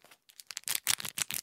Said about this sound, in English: that's the sound of the condom. I did bring it.